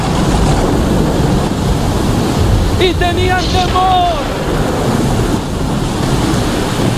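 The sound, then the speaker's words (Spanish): A roaring storm-at-sea sound effect of a tempest threatening to sink a wooden ship fills the whole clip with dense, rumbling noise like crashing waves and wind, while a voice briefly speaks over it midway. “La tormenta te está diciendo, no vas a poder, esto se va a hundir”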